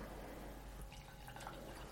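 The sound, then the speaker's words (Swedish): A short splash of Silver Needles tea from a second brewing trickles into a cup, a faint pouring sound with a few drips, heard on its own without any talking. “Och nu häller jag upp en liten skvätt åt mig själv.”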